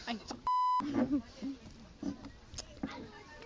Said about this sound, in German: Das wird mal wieder so eine hundertprozentig gepiepte hm. Folge. Mhm. Haben wir schon mal eine Folge gemacht, wo wir nicht piepen mussten?